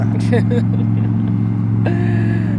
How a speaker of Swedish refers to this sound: Ska vi vänta Ja, vi kan pausa. Motorbåtspaus.